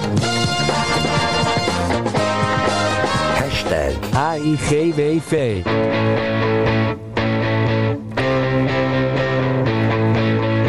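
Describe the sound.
A rock song plays on Solid Gold Radio, loud and steady throughout, with full-band instruments and sung or bending melodic lines in the middle, while a voice briefly talks over the music.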